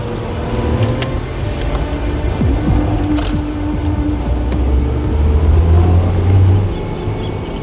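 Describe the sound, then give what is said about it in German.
An MG sports car's engine rumbles and revs as it pulls away, the droning motor holding steady before easing off slightly at the end. No voices. “Mrs. Hazelwood ging erst ins Haus zurück, als der MG nicht mehr zu hören war.”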